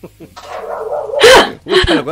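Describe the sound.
A dog lets out a couple of loud, sharp barks in quick succession, with people's voices mixed in around them.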